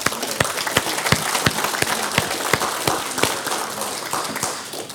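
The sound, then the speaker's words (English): An audience claps their hands in sustained applause, giving the Lord a hand clap of praise for the new year. Many overlapping claps form a dense, steady patter with sharper individual claps standing out, fading slightly at the end. “Just to uh, start this off, why don't we uh, get or give the Lord a hand clap of praise for a new year?”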